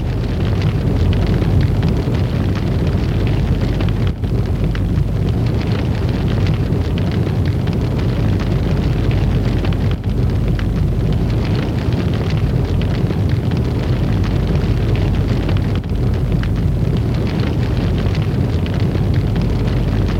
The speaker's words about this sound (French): Les feux, les flammes au grenier s'amplifient.